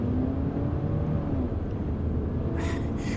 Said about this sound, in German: Der Wagen wird dich gleich überholen. Du fährst hinterher.